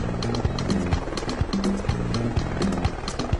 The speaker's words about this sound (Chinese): 哦哦，哦哦， Diego，我听到声音了，听起来像是 像是直升机。你听到直升机了吗？